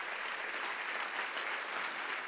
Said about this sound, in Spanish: Y si hay alguien aquí que cree que ya Dios le preparó, yo quiero que lo confirme con un fuerte aplauso para la gloria del Señor.